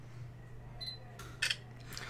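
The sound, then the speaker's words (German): A camera gives a brief high focus beep, then a couple of crisp mechanical shutter clicks in quick succession over a low steady hum, with no one talking. “Das Schöne ist auch, dass man das Geräusch immer hört.”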